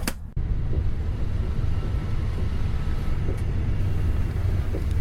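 A steady, heavy low rumble of a Pendolino high-speed train in motion, continuous and fairly loud, with faint rattles and clicks riding over the drone and no voices.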